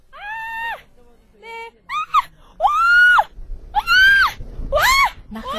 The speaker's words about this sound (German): versucht nicht laut zu schreien, was ihr aber nicht ganz gelingt